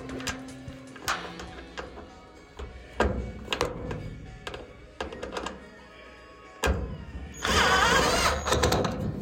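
Irregular thunks and metallic bangs as a man lying on his dining room floor shoves and knocks about a giant metal cabinet used to store baking tools, ending in a sustained scraping rattle; no one speaks.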